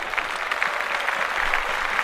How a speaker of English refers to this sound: Oh, let's clap that up.